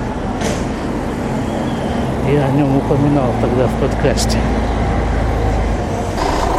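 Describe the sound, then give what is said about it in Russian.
Steady street traffic rumbles throughout at a bus stop, a dense low roar of passing vehicles, while a man talks over it for a few seconds. “Вот на этой остановке автобусной был теракт где-то года полтора назад, наверное.”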